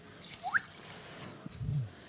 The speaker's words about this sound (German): dann nehmt ihr jetzt zwei volle Heferl Wasser. Ich habe ein, ein, ein kleines Heferl, das eben so groß ist wie ein halbes Heferl, deswegen brauche ich jetzt vier. Nicht, dass ihr auch wundern tut. So, also zwei Heferl Wasser kommen da jetzt rein.